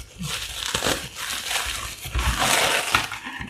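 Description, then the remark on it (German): Paper crinkles and tears as a gift is unwrapped live, a continuous, busy rustling with sharp crackles throughout, fairly loud and uninterrupted by speech. The gift is a notebook with a pen. “Genau, er bekommt jetzt live ein Geschenk.”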